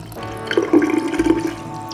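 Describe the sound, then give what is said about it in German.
A soap mixture drips from coated coat fabric and drains down a drain in the middle of a decontamination chamber in a steady gurgling trickle, with a few brighter splashy bursts in the middle. Moderately loud, with no voices. “Die Seifenmischung tropfte vom beschichteten Stoff ihrer Kittel und rann den Ausguss in der Mitte der ersten Kammer hinunter.”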